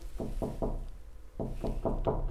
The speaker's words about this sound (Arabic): طبعا آه، هذا ايضا احد الاصوات اللي تدخل علينا خلال آه، أيوة. الحديث آه، قبل شوي سمعنا صوت بحر الان خلينا ننتقل شوي الى صوت قرع الباب